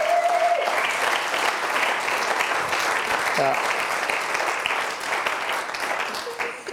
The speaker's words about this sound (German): Ja, lass uns mal, lass uns mal Gott einen Applaus geben. Ja.